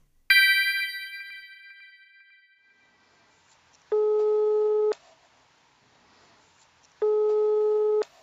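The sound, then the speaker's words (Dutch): A bright chime rings out and fades, then a telephone ringing tone of a call placed on the show Planeet Buurman sounds twice, each a steady one-second electronic tone with a pause of about two seconds between them, fairly loud and clear. “Vanuit mijn satelliet kan ik met ze bellen.”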